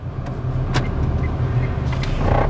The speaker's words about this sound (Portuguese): E aqui nós estamos indo de volta para casa. Vamos ligar o carro.